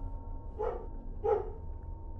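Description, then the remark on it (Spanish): A dog on a leash beside a road by a forest barks twice, about a second apart, while staring toward the woods, the barks sounding muffled over a steady low rumble of background noise. No one speaks. “Luego se alertó y miró fijamente hacia el bosque, para acto seguido comenzar a ladrar.”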